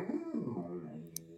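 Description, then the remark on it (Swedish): The speaker's dog yawns in the background with a drawn-out, whiny tone that slides downward in pitch, fairly quiet, ending with a faint click. “Okej, det är min hund som gäspar i bakgrunden och undrar.”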